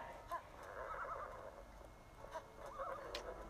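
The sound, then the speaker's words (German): A video-game horse whinnies in two short harmonic bursts as it arrives at a village, with faint hoof clip-clops and clucking fowl in a busy village ambience; no one speaks. “Das Pferd kann nicht schneller sein.”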